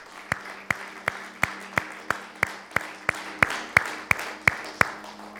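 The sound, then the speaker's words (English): An audience at Rock Creek Family Church claps together after a prayer, giving the Lord a hand of praise, in a steady, even rhythm, roughly fifteen sharp claps over a few seconds, with a faint hum underneath and no one talking. “Let's give the Lord a hand of praise.”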